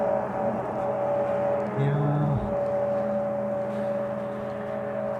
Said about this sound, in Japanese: まあ、今、車がね、横切ってうるさいな。